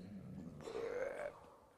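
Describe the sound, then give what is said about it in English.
A voice imitates a long, drawn-out burp, a low rumbling belch rising slightly in pitch and sustained for about a second before trailing off, fairly loud. “and burps a long one.”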